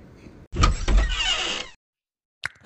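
A pantry door is opened with a low thump followed by a rushing, sliding swish lasting about a second, then silence before a brief sharp sound at the end.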